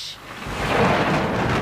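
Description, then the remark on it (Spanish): A deep, rolling rumble of thunder swells after a brief moment and holds steady, with a broad hiss of heavy rain underneath. No voices are heard. “Dice, chicos, se escuchan los truenos, a ver.”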